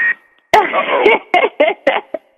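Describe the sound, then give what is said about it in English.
Garbled, tinny bursts of radio interference cut in and out, with sharp clicks between several short choppy segments, like a distorted transmission bleeding into the line. “we're, we're getting some kind of interference. What was that?”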